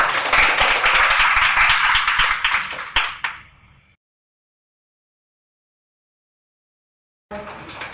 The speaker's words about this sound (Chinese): 那接下来有请减七来给我们分享她的追梦故事，大家掌声有请减七。